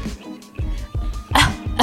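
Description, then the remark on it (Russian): A person imitates a chesty, bronchial cough: several short, harsh hacks in quick succession, the last ones louder and raspier. “Нет, кашель был вот очень а просто такой бронхиальный.”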